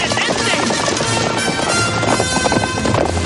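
Soldiers' horses gallop hard behind a rattling cart, their rapid hoofbeats merging into a loud, continuous rumble with rushing wind and clatter all around.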